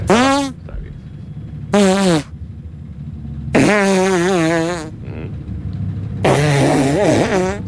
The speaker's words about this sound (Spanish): Después de esta catarata de meteorismo que tuvieron las dos nenas, cuando las miraban fijamente la madre.